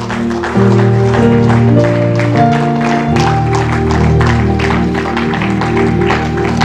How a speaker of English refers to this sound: If you believe that, will you take those same hands that you raised and clap those hands unto God? Come on.